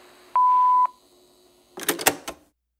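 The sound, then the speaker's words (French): A single steady voicemail beep tone sounds clearly for about half a second. After a short pause come a few brief clattering, rustling noises, then silence. “Après la tonalité, c'est moi qui vous laisse un message.”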